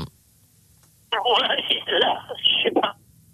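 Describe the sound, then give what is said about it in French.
A thin, tinny voice of a woman caller phoning in to play a game speaks over a telephone line for about two seconds, sounding distant and muffled, as if the caller is far from the handset, with quiet line noise before and after. “qui est très loin de son téléphone, mais on vous entend quand même”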